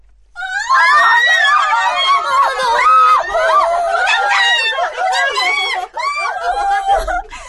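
A big crowd of young voices in a girls' high school schoolyard erupts in loud, high-pitched cheering and screaming as a new school uniform is unveiled on a model, sustained for several seconds with overlapping shrieks and whoops, no single voice standing out.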